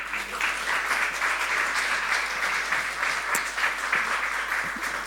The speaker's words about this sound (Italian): Questa mattina porterò io il messaggio della parola, ma prima di, eh, di, portare il messaggio c'è una testimonianza direttamente collegata alla predicazione, quindi desidero che accogliamo con un applauso